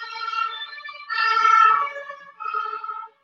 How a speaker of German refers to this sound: Jetzt fährt hier gerade ein Krankenwagen vorbei. Ich lasse den mal gerade vorbeifahren, falls du ihn hören solltest. Moment.